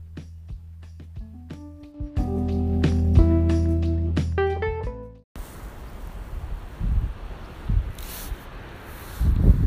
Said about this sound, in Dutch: Voordat je verder luistert, is het goed om even te melden dat we vandaag richting de kust gaan. En dat het daar heel erg kan waaien. Helaas hoor je dat ook terug in de opnames.